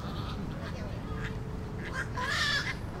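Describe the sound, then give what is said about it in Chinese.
Waterbirds squabble at night during a night nature walk, giving several short, harsh, raspy calls in uneven bursts that grow louder toward the end, over a steady low background rumble. “当然，因为我们在晚上的话，最主要的不是看这个鸟，你只注意听它有一些声音出现，有没有？好像在吵架，对不对？”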